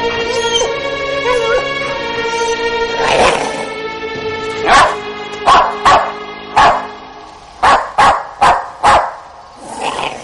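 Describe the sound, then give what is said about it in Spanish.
A dog inside a barn, its door locked with a chain and padlock, lets out a long, wavering howl, then breaks into a string of about nine loud, sharp barks in uneven bursts, with no talking. “Debe haber un perro ahí dentro.”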